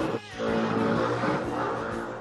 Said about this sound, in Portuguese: Não tem como cortar o tem som. Um, esse barulho que vocês estão ouvindo aí é um monte de jet ski que tá passando do lado do barco aqui.